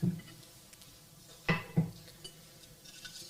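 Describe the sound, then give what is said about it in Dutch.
A wine glass clinks a few times as someone takes another sip of wine: three short, bright taps spread over a few seconds, with quiet background and no talking. “Ik neem nog een slokje wijn, want ik vind hem lekker.”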